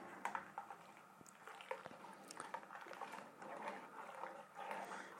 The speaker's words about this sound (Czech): Tak. A už to bude. Už to začíná dělat bublinky mlíko, takže to vypadá, že už to bude.